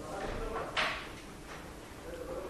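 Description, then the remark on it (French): A door with a broken latch is pushed shut with one brief, soft thud partway through, against a quiet room hum. “Si vous pouvez fermer la porte là-bas, c'est sympa.”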